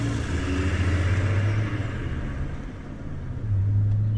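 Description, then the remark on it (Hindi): A car engine rumbles steadily, a low droning hum that dips briefly and swells again, as the car drives away with two people inside; no voices present. “वो भी चुपचाप गाड़ी में बैठी और वहां से निकल गई”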